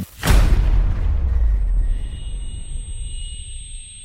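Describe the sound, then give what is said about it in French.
A single loud explosion from a detonated plastic explosive charge: a sharp blast followed by a deep, heavy rumble that slowly fades over several seconds, with a faint high whine lingering. No voices. “alors la deuxième explosion, poussière, euh, effondrement.”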